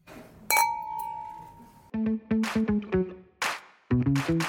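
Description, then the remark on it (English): Wine glasses clink once in a toast, a bright chime whose ringing tone slowly fades, followed by a run of short, bouncy melodic notes; no one speaks. “Chin chin.”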